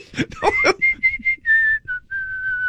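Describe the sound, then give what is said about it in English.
A person whistles in imitation of a bird's monotone chirp: a few quick breathy bursts, then a string of short, even notes at one pitch, ending in longer held tones, clear. “that uh, stupid little bird uh, that you heard chirping, Yeah, doing a monotone.”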